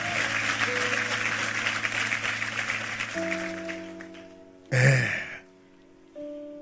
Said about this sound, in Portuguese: Que aplausinho